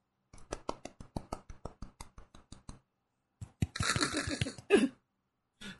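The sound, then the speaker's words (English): A quiet golf clap: a steady run of about a dozen soft, even hand claps over a couple of seconds, followed by a brief burst of rustling noise. “I tried to do a golf clap.”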